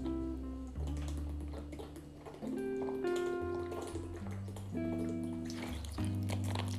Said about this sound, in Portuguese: Tenho que beber água porque já estou a falar há algum tempo